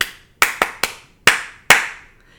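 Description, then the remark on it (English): Children clap out the rhythm of the song "I Love to See the Temple" instead of singing it: three quick, crisp claps followed by two more spaced slower, each sharp and loud with a short ringing tail, and no voices. “For instance, clap instead so you're going along and you're singing, and then say, okay, clap the rhythm instead.”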